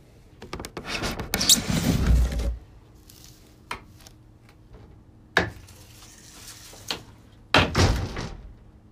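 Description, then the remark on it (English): An old wooden tree house door, obtained for free, swings open with a rough, rumbling scrape. A few sharp knocks and clicks follow before it closes with a heavy thump, with no talking. “It's got this old door we got for free.”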